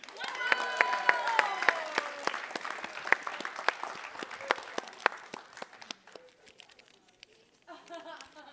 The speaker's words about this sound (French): on l'applaudit.